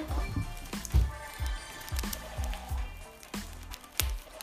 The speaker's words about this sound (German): Boah, bei uns regnet das gerade so.